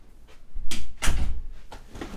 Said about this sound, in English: Sorry, I have to close my door.